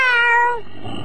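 A single drawn-out cat meow, bright and tonal, gliding slightly downward in pitch before trailing off into a soft, low background rumble.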